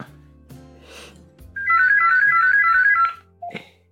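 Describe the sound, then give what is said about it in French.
A basic mobile phone, not a smartphone, plays its ringtone loudly for about one and a half seconds, a bright warbling electronic melody, preceded and followed by brief faint rustling and low background noise. “J'ai un téléphone normal, mais c'est tout.”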